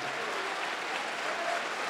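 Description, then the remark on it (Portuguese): An audience applauding together to glorify the name of Jesus, a dense, steady wash of many hands clapping at an even loudness throughout, with no voices standing out above it. “Então vamos aplaudir ao nome deste”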